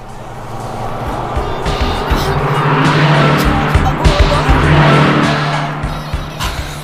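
A car in the next lane speeds past on a chilly day with its window open, its engine roar swelling loudly to a peak midway and then easing off, with a steady hum of road noise throughout and no talking.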